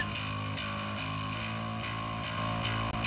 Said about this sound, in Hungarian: hogy figyeljük meg a következőt, hogy én most jó megtolom ezt a kompresszort így ütközésig. Tehát most a, a thresholdot egy kicsit. Igen, a thresholdot megtoltam. Megpróbálom beállítani a hangerőt. Hát ennyit tapos, ez rettenetes.